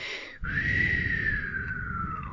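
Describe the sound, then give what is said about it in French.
Someone imitates a whistle: a single breathy, sustained tone that glides slightly downward and lasts about two seconds, with airy hiss around it and no talking. “un genre de sifflement qui était puis c'était juste ça puis le monde qui parlait”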